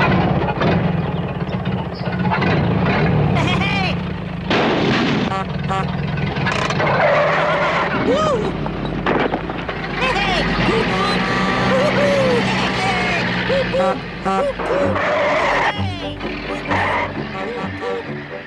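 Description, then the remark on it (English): Toad's old motor car rumbles along loudly for the whole stretch, engine roaring with screeching skids and squeals, voices mixed in under the racket. “You you you want to drive that motor car too, even though it's also portrayed as kind of an unhealthy obsession that could bring Toad Hall down.”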